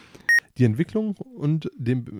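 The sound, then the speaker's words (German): A mobile phone gives a single short, bright low-battery beep near the start, clear, before a man laughs and keeps talking. “Äh, jetzt geht das Handy aus.”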